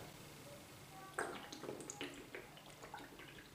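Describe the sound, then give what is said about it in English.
Someone drinks water from a pink reusable bottle, with a series of soft sloshing and swallowing sounds after a brief quiet pause. No one talks. “I'm holding a pink water bottle, not pink, a pink, uh, reusable bottle yeah I don't know how you exactly call it and water break I remind you to drink water so drink some water”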